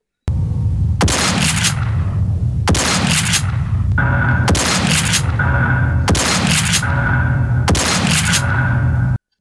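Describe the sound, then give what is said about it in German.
Five heavy, booming shotgun blasts from an old video game fire at an even, measured pace, loud, each followed by a brief metallic ringing tail. “Da ist schon mehr Wumms dahinter, aber ja. das sind auch ganz, ganz andere Mittel, die da zur Verfügung stehen, ne?”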